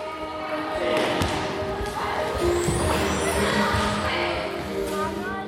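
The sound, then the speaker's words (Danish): Several balls thump and bounce irregularly, overlapping in a steady clatter, during a ball session for 3- to 6-year-old children and their parents in Skovby, with children's voices chattering and calling in the background. “Og så bliver de introduceret til en hel masse aktiviteter med forskellige bolde.”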